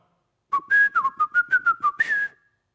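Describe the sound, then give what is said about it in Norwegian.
Someone whistles the young Siegfried's bold horn theme from opera number three: about nine quick, clipped notes rising and falling, ending on a longer held tone, with no talking. “Først entrer scenen i opera nummer tre, hører vi hans horntema.”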